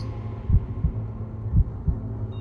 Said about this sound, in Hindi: और वहीं उसकी धड़कन एकदम धीमी चल रही थी